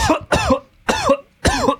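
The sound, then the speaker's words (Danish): Four harsh coughs in quick succession from a man with a pressed rib, spaced in a rough rhythm with short pauses between them, loud and alone with no talking. “Du, ho- du hoster lidt i dag, min ven.”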